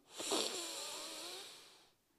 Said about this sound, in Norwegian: Da starter vi med å puste litt. Og da starter vi med å puste godt inn med nesa.